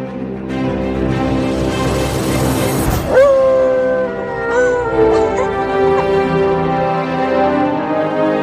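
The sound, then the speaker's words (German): A dog howls in long, wavering tones along with an orchestra musician playing a sustained instrument with steady notes, the two blending loudly and continuously for several seconds with a sudden surge in the middle. “Dann lassen wir sie zum vorletzten Mal heulen in diesem Jahr, die Lulu mit unserem Orchestermusiker Manni zusammen.”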